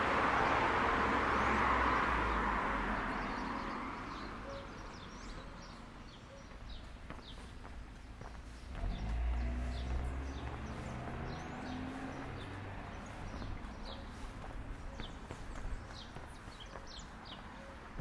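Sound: house sparrow chirping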